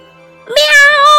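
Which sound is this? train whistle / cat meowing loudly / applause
cat meowing loudly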